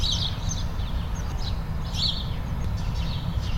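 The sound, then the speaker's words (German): Several garden birds chirp and sing in bright, scattered bursts over a steady low rumble of distant street traffic, heard from a living-room window in a city during the pandemic lockdown, with no voices present. “Die Vögel im Garten, im Hintergrund rauscht die Straße, paar Menschen sind unterwegs.”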